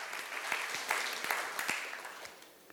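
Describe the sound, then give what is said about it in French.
An audience applauds God during a morning sermon, clapping steadily in a dense wash of many hands, with a few sharper claps popping out above the rest before the applause starts to thin toward the end. “Est-ce qu'on peut applaudir ce Dieu-là qui croit en nous malgré ce qu'on fait, qui est tellement bon?”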